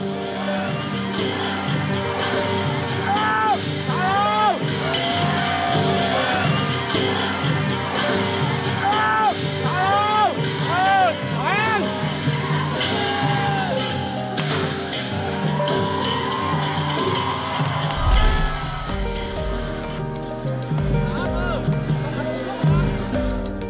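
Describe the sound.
Crowd cheering at a dragon boat race as the Mansour Dragon Boat teams compete: a dense, continuous roar of many voices, punctuated by repeated rising shouts and whoops, staying loud for the whole stretch.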